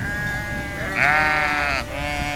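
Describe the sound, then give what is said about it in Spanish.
Sheep of a flock scattered across a field after being frightened by a fire bleat, a sustained wavering cry that swells louder in the middle before tapering off, with other bleats overlapping and no voices present. “Las ovejas balaban desconsoladas.”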